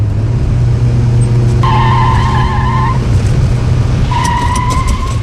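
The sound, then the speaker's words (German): A car engine roars steadily at speed while tires squeal twice in long, high-pitched screeches, each lasting over a second, as the car skids hard through a turn. “Achtung, Kurve! Bist du wahnsinnig? Du fährst viel zu schnell.”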